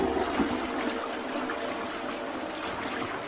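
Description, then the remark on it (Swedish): A toilet flushes with a steady, loud rush of water that holds at an even level for about three seconds, with no voices. “Nej men det spolar vi. Tryck Marcus, tryck!”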